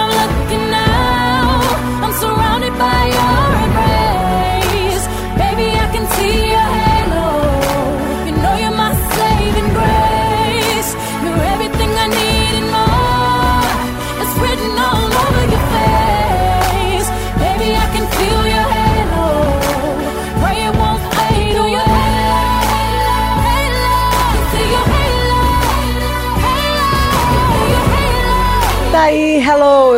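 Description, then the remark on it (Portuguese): A pop ballad plays loudly and continuously, with a sung vocal melody over full instrumental backing and no talking on top. “É uma super canção pop maravilhosa, uma balada maravilhosa.”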